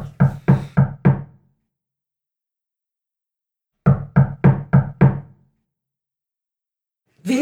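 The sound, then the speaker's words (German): Two bursts of knocking on a door on Halloween, each a quick series of four or five firm raps, separated by a few seconds of silence, with another knock starting at the very end. “Aber an Halloween mal die Tür aufmachen. Na gut, ich mach auf.”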